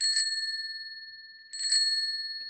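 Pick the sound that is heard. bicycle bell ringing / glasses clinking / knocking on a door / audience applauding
bicycle bell ringing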